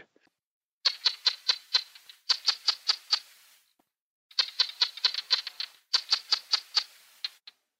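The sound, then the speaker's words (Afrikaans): A common barking gecko, a veld sound of the dry western parts of southern Africa including Namibia, calls in four quick bursts of sharp, dry clicks, each run of five or six evenly spaced chirps, clear against a quiet background. “Dit is die roep van die blafgeitjie en een van die veldgeleide eie aan die droë westelike dele van suidelike Afrika, insluitende Namibië.”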